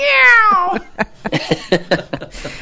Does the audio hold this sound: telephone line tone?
no